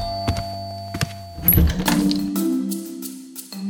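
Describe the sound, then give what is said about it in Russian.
A front door is unlocked and opened: a couple of sharp clicks and thunks from the latch, followed by a heavier knock and a creaking swing with a faint hum underneath. “Открываю!”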